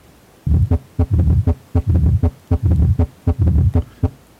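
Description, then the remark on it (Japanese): Steady, repeating heart sounds with a low rumbling murmur filling the gap between beats, the pattern of a mid-diastolic murmur from mitral stenosis, with no voices. “このような雑音が、えー、相互弁狭窄症の雑音です”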